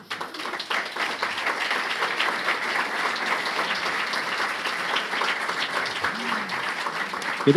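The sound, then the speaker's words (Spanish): A crowd applauds steadily for several seconds at an exhibition of film set photographs, a dense, continuous wash of clapping hands holding an even loudness throughout. “Un aplauso, un aplauso.”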